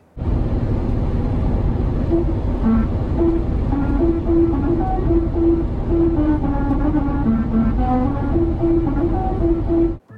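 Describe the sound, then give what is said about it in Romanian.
From inside a moving car, the tires roll over musical road markings (resonant markings arranged so that driving over them at certain speeds plays a melody), producing a buzzing melody of stepped humming tones over a loud, steady road rumble. No one speaks. “se numesc marcaje rezonatoare și pot fi aranjate în așa fel încât uh, dacă le calci la anumite viteze, sunetul ăla reprezintă o melodie”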